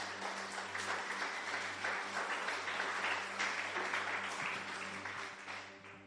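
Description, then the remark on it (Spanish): A crowd breaks into sustained applause for Jesus, dense overlapping clapping that holds steady for several seconds before easing slightly at the end, with a low hum running underneath. “Den un aplauso a Jesús.”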